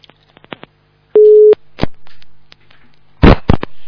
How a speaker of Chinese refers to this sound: 师傅打电话了。